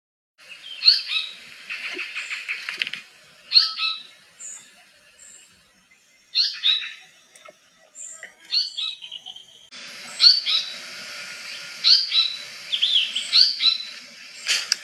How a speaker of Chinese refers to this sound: 绶带还是属于中型的鸣禽。那它的叫声，一会儿我给大家录放一下，大家听一下。